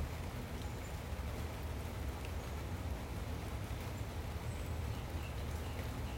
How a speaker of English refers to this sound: Can you hear the sounds of the rain? envision the rain coming down, washing your body, cleansing the spirit, and cleansing the soul.